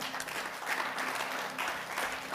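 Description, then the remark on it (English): An audience claps steadily for a couple of seconds, a dense, sustained patter of many hands at moderate volume, with a faint low hum running underneath. “Don't you clap?”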